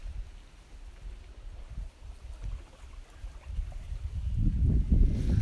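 Gentle waves on Lake Shikaribetsu lap in soft, irregular washes while a low wind rumbles steadily underneath, growing fuller and louder toward the end. No voices.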